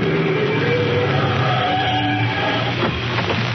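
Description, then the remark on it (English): A car drives alongside the Shadow with a steady engine hum and road rumble, fairly loud, the drone shifting slightly toward the end as it seems to slow. No one speaks. “They're driving alongside Shadow.”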